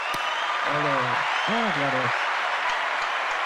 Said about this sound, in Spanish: Vale, venga, un aplauso. Venga.